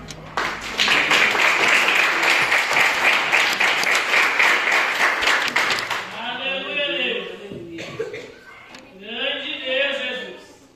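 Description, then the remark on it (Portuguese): An audience breaks into loud, dense applause for the Lord, many hands clapping steadily for about six seconds before it fades and a man begins speaking. “eu agradeço a oportunidade, as palmas pelo Senhor.”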